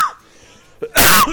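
A short intake of breath, then a single loud, harsh cough right up close to the microphone, bursting out for a moment before cutting off. No one speaks.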